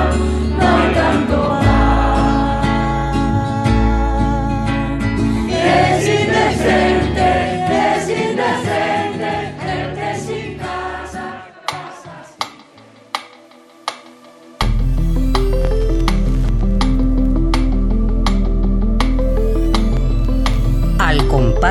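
A woman sings over a full, loud band arrangement; midway the music thins to a few sharp percussive hits before the whole ensemble crashes back in strongly.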